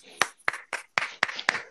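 A single pair of hands claps in a steady rhythm, about seven sharp, evenly spaced claps in under two seconds, with no talking over them.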